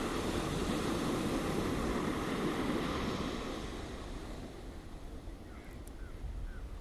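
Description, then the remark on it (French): Ocean waves break and wash up on the shore in a broad, steady roar that swells for the first few seconds, then eases into a softer hiss. No voices are heard. “Plus d'angoisse, plus de crainte, tout va bien laisse ces vagues encore emporter tout ce qu'il reste, jusqu'au dernier.”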